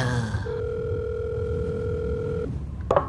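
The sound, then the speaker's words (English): A telephone dial tone hums steadily for about two seconds over a low background rumble after the other party hangs up, then cuts off, followed by a brief handling clatter. “You hung up on me, Mr.”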